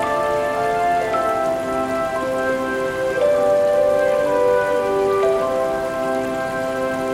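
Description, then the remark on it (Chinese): Slow-flowing river water makes a steady, even rushing wash throughout, with soft sustained musical tones layered over it and no talking. “听听河水慢慢流泻的声音。”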